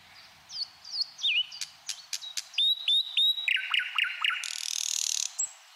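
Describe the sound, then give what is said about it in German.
A bird sings a lively, varied song: quick whistled phrases, sharp clicks and rapid trills, ending in a buzzy rattle, with no voices present. “Vor allem aber macht ihn der Vogelgesang natürlich auch einfach glücklich.”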